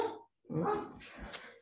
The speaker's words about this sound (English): sorry, that's my dog.